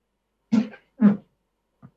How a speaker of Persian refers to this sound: صدای چی صدای مبله صدای صندلیم بود